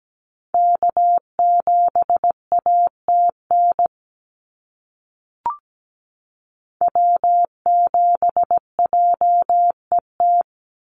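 Morse code sent as a steady mid-pitched beeping tone at about 17 words per minute: one NA SOTA activator callsign of dots and dashes, a pause with a brief click, then a second callsign.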